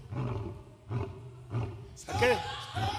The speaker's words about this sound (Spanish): Ese es un rugido de león.